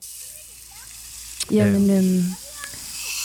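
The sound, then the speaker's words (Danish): Constant hissing spray of water drenches elephants being given a shower while a deep, drawn-out animal call rises loudly for under a second midway; a voice briefly speaks near the start. “Det synes jeg er fedt, hvis du kan, fordi jeg har fundet øh, elefanter her, som får brusebad.”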